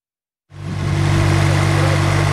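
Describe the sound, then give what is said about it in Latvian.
Idling truck engines in a queue of about 150 vehicles, some 4 km long, at the Grebņeva border checkpoint on the Russia–Latvia border, set up a steady, low diesel rumble that starts abruptly after a moment of silence and holds an even, droning pitch throughout. “Uz Krievijas un Latvijas robežas pie Grebņevas robežu kontrolpunkta kravas automašīnu rinda ir aptuveni 4 km gara un robežas šķērsošanu gaida ap 150 transporta līdzekļu.”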